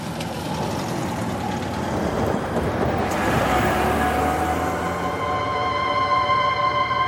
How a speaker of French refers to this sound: Là, il y a une voiture qui arrive sur la route, on vient d'arriver. Tu t'allonges. Hein, tu t'allonges. Comme ça. Tu bouges pas, tu laisses la voiture passer.